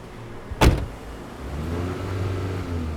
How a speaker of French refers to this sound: Une voiture s'arrête avec des garçons, une hésitation la traverse mais elle monte.